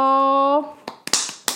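A sustained cheerful vocal note gives way to a handful of sharp, crisp hand claps, about five, slightly irregular in rhythm and fairly loud, clapping for Brown finally standing up after a series of hard training exercises.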